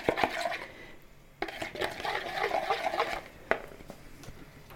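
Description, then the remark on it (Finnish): Stirring spices into two tablespoons of oil in a bowl to make a marinade for chicken pieces: a continuous wet scraping and swishing of a utensil through the oily mixture, with a few sharper clinks against the bowl's side, moderately loud and without talk. “Ja sitten sekoitus. Niin, että se kaikki mauste sekaantuu hyvin tuohon öljyyn.”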